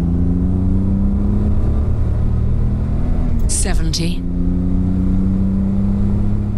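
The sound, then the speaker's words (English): A powerful 4-litre engine of a vintage Aston Martin DB5 sports car roars loudly and steadily on a straight road in the remote English countryside, its deep drone briefly dipping and sweeping in pitch midway as it revs and accelerates. A voice speaks briefly over it. “The 4 litre engine suddenly given a chance to take flight.”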